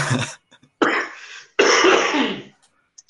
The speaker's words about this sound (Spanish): Ah, ya voy saliendo de la tos.